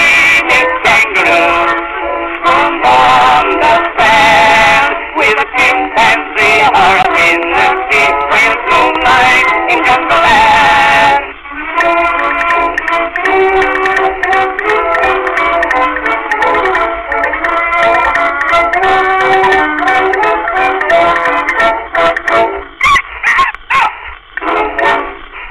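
A thin, tinny phonograph recording of a song from 1910, with a narrow, boxy tone and dense accompaniment playing steadily and fairly loud from start to finish.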